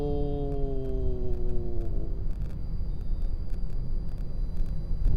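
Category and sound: vehicle, car driving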